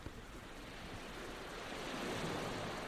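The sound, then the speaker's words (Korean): A waterfall in Argentina, likened to the Devil's Throat, roars steadily in a dense, continuous wash of rushing water that swells slightly louder toward the end, with no voices. “악마의 목구멍 같은 히거스 폭포.”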